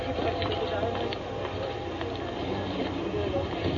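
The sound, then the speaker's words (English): Dense, steady outdoor city ambience on the Ginza in Tokyo, Japan, on a Saturday night in spring: a constant crowd murmur, scattered footsteps and traffic, a continuous busy street bustle with no single sound standing out. “This is the way the Ginza sounds on a Saturday night, typical Saturday night in spring.”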